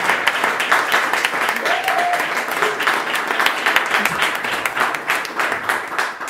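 Sustained audience applause for a woman, honouring all the work she puts in. A dense, steady patter of many hands claps for several seconds at an even loudness, with a brief faint voice tone rising above it partway through.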